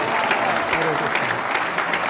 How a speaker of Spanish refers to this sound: Vamos un aplauso